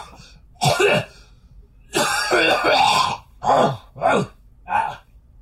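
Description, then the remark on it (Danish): A loud, painful coughing fit as a mother coughs something up: a harsh cough, then a long raspy hacking stretch, followed by three shorter coughs in quick succession, with no talking. “Ej, hvad er det, mor hun har hostet op?”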